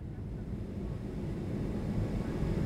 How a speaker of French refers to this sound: L'avion roule sur la piste d'envol. Goon sent les vibrations des réacteurs qui montent en puissance.